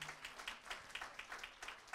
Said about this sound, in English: Praise the Lord. Come on, put your hands together and give a clap offering at this moment.